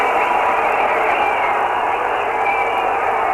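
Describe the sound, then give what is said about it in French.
A large crowd roars continuously and loudly, a dense, unbroken wall of cheering with a muffled, narrow-band broadcast quality, as motorcyclists arrive ahead of the car of the president of the council. There's no clear speech above the din. “vous entendez la foule qui se déchaîne car voici les motocyclistes qui précèdent la voiture du président du conseil”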